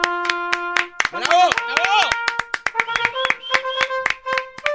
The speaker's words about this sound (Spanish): Es un aplauso muy sumiso, maestro.